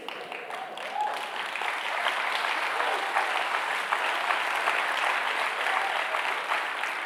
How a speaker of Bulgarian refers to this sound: Ръкопляскаш като някой, който е в тинята. Ръкопляскаш като някой, който е в застой.